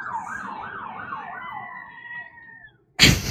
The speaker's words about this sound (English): What, what the hell was that? okay, the siren and the scream went off perfectly timed. Um, I'm glad we got that.